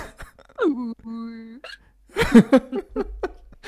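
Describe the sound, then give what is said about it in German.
A person vocally imitates a hiccuping whale: a drawn-out, wavering moan followed by abrupt, gulping hiccup sounds, fairly loud, breaking into laughter-like bursts at the end. “Stell ich mir, stellst du dir von Walig mit Schlucker vor, das wäre cool.”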